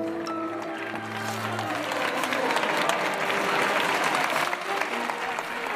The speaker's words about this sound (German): So hört sich das an, wenn Stierkämpfer in die Plaza de Toros in Mexiko hineinlaufen. Die Plaza de Toros ist die größte Stierkampfarena der Welt. 50.000 Plätze umfasst die.